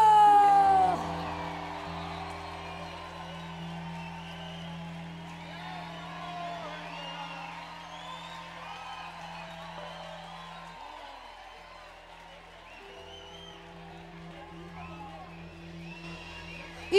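A large crowd cheers and applauds steadily, with scattered high whoops and yells rising over the dense clapping while a low sustained hum runs underneath throughout.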